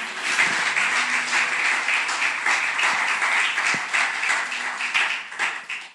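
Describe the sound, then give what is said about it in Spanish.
A church audience breaks into sustained applause for Christ during a sermon, a dense, steady wash of many hands clapping that holds for several seconds before tapering off at the end, with a faint low hum beneath. “Dale un aplauso al rey.”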